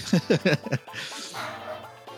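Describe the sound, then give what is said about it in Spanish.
A female dog barks excitedly in a quick burst of about five sharp yaps, then falls quiet as a softer murmur of background sound continues. “Ay, mi perra se volvió loca.”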